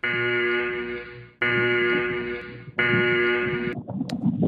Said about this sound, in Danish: Og det er i tilfælde af, at jeg åbenbart er kommet til at spoile for mange ting, så skulle, øh, skulle jeg komme i den tilfælde, at, øh, at jeg kommer til at spoile noget, så har vi en alarm til det også, og den går sådan her.